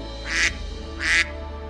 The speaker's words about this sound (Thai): ดังนั้นวินนี่ก็ได้ร้องกาบกาบกาบด้วยความตื่นเต้น